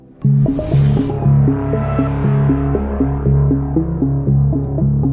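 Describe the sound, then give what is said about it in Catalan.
Synth theme music of the segment La Terra Esplana on Catalunya Ràdio opens with a bright whooshing sweep, then settles into a loud, steady pattern of deep pulsing chords that step up and down in a repeating rhythm, with no voices. “Som el suplement, som a Catalunya Ràdio, això que sona és la Terra Esplana, avui descobrint l'aigua de la Lluna.”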